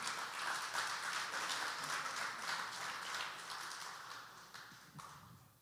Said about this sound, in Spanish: Dale ese aplauso al Señor.